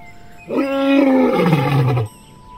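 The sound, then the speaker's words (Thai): A single loud lion roar lasting about a second and a half, starting with a strong rumbling burst and sliding down into a deep, fading growl, with no talking. “แต่ในขณะนั้น จูจูก็มีสิงโตตัวหนึ่ง เดินมาตรงที่สุนัขจิ้งจอกและหมาป่าอยู่”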